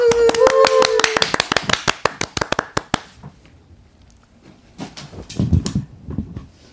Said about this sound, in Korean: 박수.